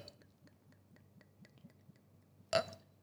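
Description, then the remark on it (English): Soft, steady sounds of people really eating dinner, not sound effects: quiet wet chewing and gulping in a quick regular rhythm, then one brief, louder, sharper sound near the end. No one speaks. “这些不是 sound effects 哈，这些是真的。 我们真的在吃东西。”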